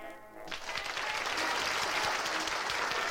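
An audience breaks into sustained applause, cheering an unexpected final act, a dense wash of clapping that swells after a brief tonal moment at the start and keeps going steadily and loudly to the end.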